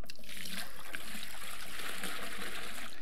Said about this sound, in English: And I want to ask you, even before the illustration, when I pour the water into the cup, is anything around the cup, is it going to get splashed or wet?